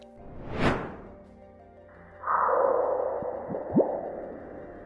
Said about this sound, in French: Vous avez entendu C'était le bruit d'une météorite heurtant Mars. Impressionnant, non Une équipe est parvenue à enregistrer ce bruit grâce au sismomètre martien CEIS et aux caméras de la sonde Mars Reconnaissance Orbitaire.